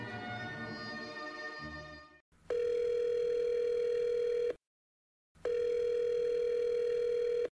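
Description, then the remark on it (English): A telephone ringback tone sounds twice, each steady electronic burr lasting about two seconds with a short silence between, loud, following a brief burst of other sound at the start. “I don't know why we do the phone ring when it's just one person.”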